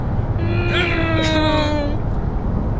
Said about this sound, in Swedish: nu får ni lyssna på ljudet här. Hanna bara revar upp bilen.